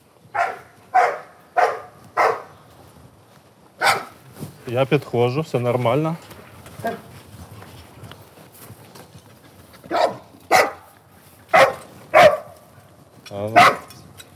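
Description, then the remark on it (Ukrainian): A search and rescue dog barks repeatedly in loud, sharp bursts, evenly spaced, to mark a mock victim it has found, pauses while a person briefly speaks, then resumes barking in another insistent series. “Отак собака позначає умовного постраждалого.”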